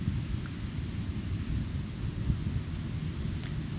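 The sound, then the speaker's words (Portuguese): A steady, deep roar of ocean surf breaking against a large wall of coral reefs in front of a beach with green water, a continuous rumbling wash with no clear individual waves and no voices. “Minha frente tem uma praia de água verde e alguns recifes de corais, um grande muro de recifes de corais, onde as ondas batem e fazem faz barulho e fazem barulho.”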